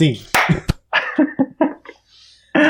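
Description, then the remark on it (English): Two sharp, loud slapping claps, followed by a quick run of short, rhythmic voiced barks as someone imitates a clapping seal. “And, and seal clap.”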